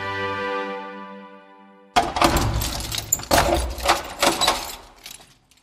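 A held musical chord fades out, then a key rattles and turns in a lock, with a string of metallic clicks, scrapes and heavy clunks as the door of the church in the Franciscan monastery of Kadaň, Czech Republic, is unlocked.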